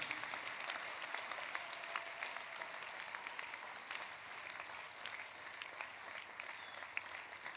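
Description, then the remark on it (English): A church audience applauds steadily to honor the founder of the church, the dense clapping sustained and even throughout with many overlapping hands and no voices standing out. “If you don't clap, a wizard is sitting on your nose.”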